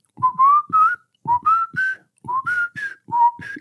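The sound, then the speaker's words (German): A video game character sitting with a newspaper after the first boss is beaten whistles a lively, bouncy theme tune in short rising phrases, clear, with a faint thumping underneath and no talking. “sitzt da mit seiner Zeitung und, und pfeift den Duke Nukem Team”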